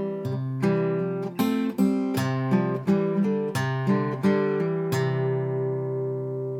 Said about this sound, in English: really beautiful lick that has this uh, as I mentioned, kind of a circular feel. And it reveals this wonderful power of playing within chord shapes.